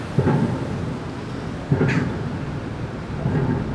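Pile driving at a heavy construction site across the water, near the ferry over the IJ in Amsterdam-Noord: three heavy, booming thuds strike at a slow, steady rhythm, roughly one and a half seconds apart, over a constant low rumble of wind noise from a fairly strong wind.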